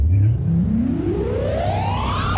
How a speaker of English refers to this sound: We have an oh. intro to play for you. Hang tight.